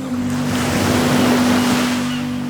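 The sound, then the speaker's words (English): Sea waves break on a beach in a steady, rushing wash of surf that swells slightly midway, with a faint low hum underneath and no one speaking. “Is it the sea waves?”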